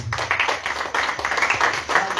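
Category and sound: crowd, audience clapping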